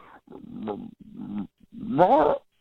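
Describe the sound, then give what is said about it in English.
A person imitates their dog trying to say a person's name, with three voiced, growly bursts, the last one louder and longer, rising and wavering like a revving growl. The sounds carry no ordinary speech. “Um, uh, here, let me see if I can do it the way he was doing. He was kind of doing like a”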